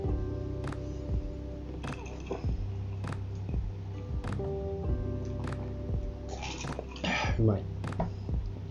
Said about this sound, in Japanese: すいません、お酒飲みますね。